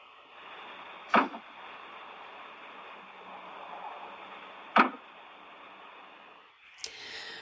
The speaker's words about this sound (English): So to me, it almost sounds like two knocks at the door but you don't see anything.